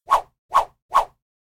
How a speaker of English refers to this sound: I'm getting my podcast whip.